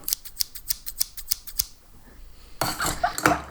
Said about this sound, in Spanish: las tijeras, las tijeras.